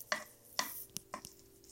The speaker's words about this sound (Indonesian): eh mas eh kecil-kecil kecil, -kecil, lagi. iya dipotong lagi guys katanya nuggetnya guys